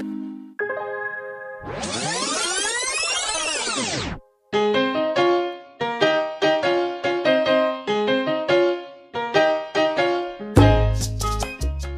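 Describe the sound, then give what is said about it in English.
A tape-rewinding effect: a fast, warbling whir that sweeps up in pitch and back down over about two seconds, followed by a bright, tinkling melody of chime-like notes. “Evan, rewind the tape.”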